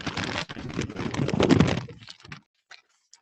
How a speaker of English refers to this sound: I've got my my notes here. You can hear me ruffling the paper.